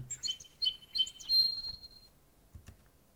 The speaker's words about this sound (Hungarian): Ugrált, szakadott a vége. Uh-huh. Nem volt a madár hangjának kicsengése, visszhangja.